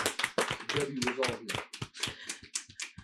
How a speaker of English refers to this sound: Let's clap for them. Thank you guys.